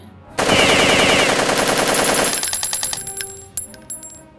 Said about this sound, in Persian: این برای جنگ های نزدیک خوبه اسم این تفنگ ماشینیه میدونی یعنی چی یعنی اگه دست تو روی ماشین نگه داری کل خشابو و سه سود خالی میکنه